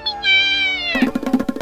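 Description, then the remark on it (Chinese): A frightened cat, its back fur raised as a dog lifts a foreleg at it, lets out one shrill, high-pitched meow that holds steady for almost a second, followed by a quick string of rougher, choppy yowling bursts. “狗儿看不过去，举起前腿想给他一个教训，吓得他竖起背脊的毛，尖声大叫：“ 喵！”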